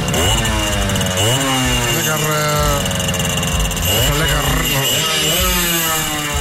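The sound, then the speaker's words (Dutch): A small two-stroke Kreidler moped engine runs loud while being ridden on a sunny day, its buzzing whine rising and falling as the throttle is opened and eased off several times. “ik heb een stukje op de, op de Kruidler gereden”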